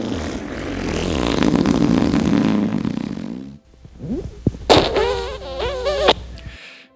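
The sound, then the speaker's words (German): A long, loud, rumbling fart lasting several seconds, after eating a lot of beans, followed after a short pause by a few shorter sputtering bursts and a high, squeaky, wavering toot, with no talking. “und wollen euch jetzt einfach mal an dem Ergebnis teilhaben und ihr könnt euch ja dann für euch selber entscheiden, wer von euch besser pupst.”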